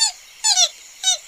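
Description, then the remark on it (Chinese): A bat squeaks three times in quick, uneven succession, each a short, shrill chirp that slides downward in pitch. The calls are fairly loud, with no voices around them. “小心那些大蟒蛇，小心大野狼，还要小心蝙蝠。”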